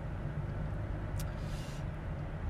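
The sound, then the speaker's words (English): A steady, low rumbling car engine idles nearby amid traffic, with a brief hiss of a passing vehicle or air brake midway and no voices. “the, the, car purring next to me is just fantastic.”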